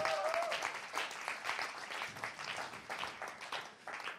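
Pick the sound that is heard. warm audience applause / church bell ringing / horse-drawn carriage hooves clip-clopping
warm audience applause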